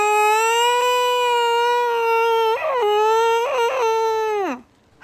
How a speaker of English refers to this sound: When I was trying to attempt sleeping at night, even though I was just so scared, this is what cats sound like when they are mating.